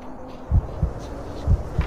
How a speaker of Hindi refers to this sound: अचानक से दिल की धड़कने और हवाओं के झोंके बढ़ने लगे